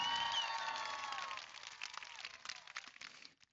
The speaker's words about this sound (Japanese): 歓声と拍手。